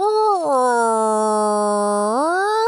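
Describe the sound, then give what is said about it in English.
A voice imitates a humpback whale call: one long, loud, moaning tone that swoops down, holds low and steady for over a second, then glides back up, with no other talk. “whales are some interesting cats. I mean, what do they do besides swim around and go?”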